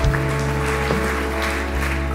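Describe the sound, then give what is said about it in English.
A church audience claps together in steady, continuous applause for those who have responded to Jesus, a dense crackle with a low electrical hum running underneath, with no one speaking. “Can we applaud those that have responded to Jesus?”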